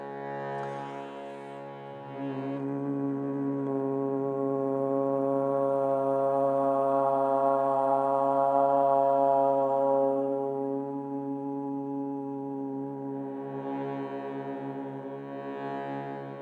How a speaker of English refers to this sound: bring the lips to a close, and that creates the M sound. So you'll be back to humming. So starting with the hum, the ah, and then back to the hum.